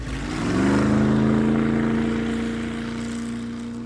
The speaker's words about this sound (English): He turns around, starts the engine, and you all are off.